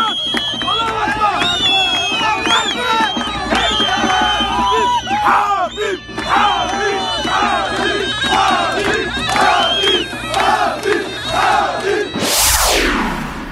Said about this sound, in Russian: Вот так сегодня Дагестан болел и отмечал победу Хабиба Нурмагомедова. Были перекрыты дороги, толпы людей, машины, кони, Болела вся республика, конечно же,